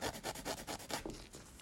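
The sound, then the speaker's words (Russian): Rhythmic scratchy rasping of a nail file across a fingernail during a manicure done at midnight, about eight quick back-and-forth strokes, steady and fairly quiet, with no talking. “А мы сегодня записываем АСМР ноготочка.”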